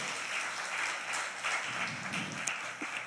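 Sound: audience applauding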